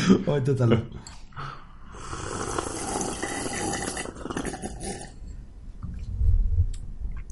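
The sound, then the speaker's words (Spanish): Someone takes a breathy sip from a drink, a drawn-out slurping inhale lasting a few seconds, with a brief vocal sound just before it and a soft low thump afterward. “Sorbito.”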